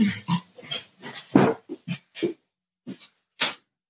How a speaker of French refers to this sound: Je pense que vous devez l'entendre. Euh, il est en train de de, miauler.